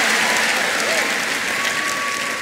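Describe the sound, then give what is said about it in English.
A large audience claps loudly and steadily in sustained applause, a dense wash of overlapping hand claps given as a clap of praise to the Lord, lasting the whole moment. “Give the Lord a big, big clap of praise.”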